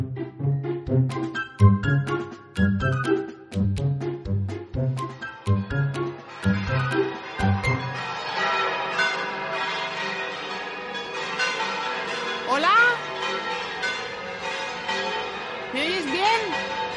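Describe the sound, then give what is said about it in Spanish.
The bells of Murcia Cathedral ring loudly, heard from right beside the cathedral, beginning with quick, steady strikes that swell into a dense, overlapping peal of clanging bells that keeps resonating. “Aquí estamos, al lado de la Catedral de Murcia. Sí, sí, están sonando las campanas.”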